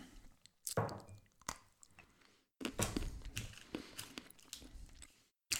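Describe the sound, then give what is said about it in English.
Wet chewing of a bite of Ghirardelli dark chocolate with sea salt caramel, taken with sips of Wild Turkey Rare Breed, with soft crunching and squishing sounds in an irregular rhythm, broken by a brief pause before the chewing resumes. No one speaks. “Let me take another sip and another bite with that.”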